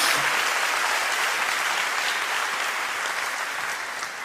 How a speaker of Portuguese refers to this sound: Então para, pode dar uma salva de palmas.